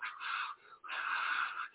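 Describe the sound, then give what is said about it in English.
Two long, raspy, breathy exhalations separated by a brief pause, as a person acts out heavy, winded panting, imitating being out of breath while rushing back and forth between call lights at work. “Oh, oh, like I'm breathing like, oh, okay, okay, okay.”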